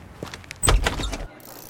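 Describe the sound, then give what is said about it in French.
A door into the Decathlon offices swings open and closes again, a brief rattling handle followed by a dull, solid thud lasting under a second, then quiet room tone. “Je te propose plutôt qu'on passe par cette porte-ci.”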